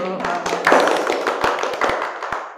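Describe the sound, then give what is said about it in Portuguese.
A small group applauds a guest at the start of a discussion, hands clapping in quick, uneven claps, with some sharper individual claps standing out over a steady dense patter. “Antes de mais nada, palmas”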